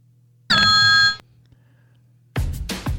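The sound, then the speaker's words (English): A phone rings once with a loud, steady electronic tone lasting under a second, followed after a short pause by a burst of busy, noisy sound. “You'll hear a phone call, you hear some music, and then it'll be go time.”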